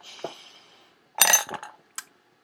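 A quick sip of water: a faint clink of a glass or bottle, a brief burst of handling and swallowing noise, then a final small click, with no one talking.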